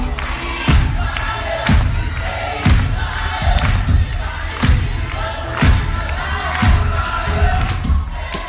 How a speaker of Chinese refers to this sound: 这是日日穿行的百年地铁。